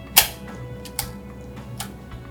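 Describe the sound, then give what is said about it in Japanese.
An old camera shutter snaps three times at an even pace, a dry mechanical click each time, the first loudest and the next two softer, over a faint steady hum with no voices. The camera's shutter stays open. “降りたいやよるけど開きっぱなしなの絞りがシャッターがなんでしょなんかやっぱ一回ちゃんとせ開けてああもうかどっか固まってるかなんかでしょうね”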